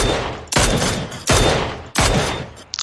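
Video game gunfire as an enemy shoots at the player: four loud, sharp shots spaced at a steady pace, each ringing out with a long, decaying tail before the next. No one speaks.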